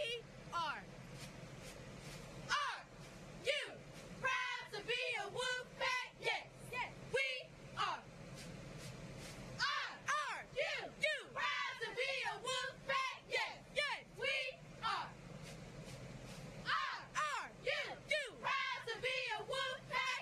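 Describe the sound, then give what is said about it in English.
High school cheerleaders chant in rhythmic, punchy bursts, "Vigor! Wolves!", pausing between sets of cheers, over a steady outdoor rumble at a high school stadium on game day. “Hey, the uh, the cheerleaders are out here. Take a listen.”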